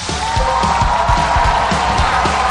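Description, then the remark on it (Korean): Loud, steady applause from an audience welcoming panelists, mixed with crowd cheering and a sustained tone, while low rhythmic thumps pulse underneath throughout. “자, 패널분들 모시겠습니다. 여러분 박수로 환영해 주시기 바랍니다.”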